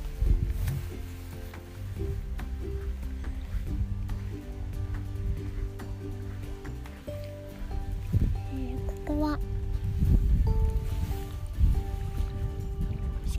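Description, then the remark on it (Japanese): Water laps steadily at the shore of Lake Shikaribetsu, a high-altitude lake in the mountains, while gusty wind rumbles through, a continuous wash of sound with sustained humming tones running underneath. “BGMは波の音、風の音、鳥の声です。”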